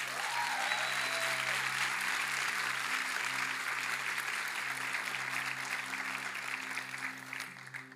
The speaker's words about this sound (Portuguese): Então eu queria honrar a vida de todos os voluntários por tudo aquilo que eles fizeram e uma salva de palmas para essa galera.